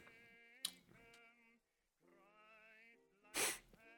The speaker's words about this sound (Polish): Przepraszam, zastanawiałem się, co robi mój sąsiad, a to mój kot y, chrapie.